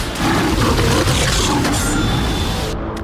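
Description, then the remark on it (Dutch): A lion lets out a loud, sustained roar lasting a few seconds, deep and rumbling with a raspy edge and dominant, with no talking over it, from the trailer of Dick Maas's film Prooi, about a lion loose in Amsterdam. “De film Prooi over een loslopende leeuw in Amsterdam.”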